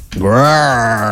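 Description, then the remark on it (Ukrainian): A single loud, drawn-out lion roar from the Metro-Goldwyn-Mayer film studio logo, rising quickly and then holding a deep, throaty growl for about a second, heard on its own. “Це звук лева з метро Голденмаєр.”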